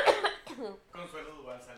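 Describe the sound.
A sick person gives a couple of harsh, barking, dog-like coughs, followed by a strained, throaty voice carrying on briefly afterward.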